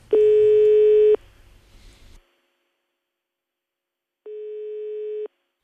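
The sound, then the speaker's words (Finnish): A telephone ringback tone: two steady, buzzy one-second beeps separated by a few seconds of silence. The first is louder with some low rumbling handling noise, the second slightly quieter. “Yritetään ottaa selvää, otetaan tuo puhelin tuosta käteen ja katsotaan, katsotaan mitä löytyy.”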